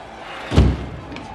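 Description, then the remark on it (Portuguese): A single heavy door slams shut, a loud, brief thud with a short rumbling tail, set against a quiet, steady background hum. “E as portas, porra, sensacional, velho.”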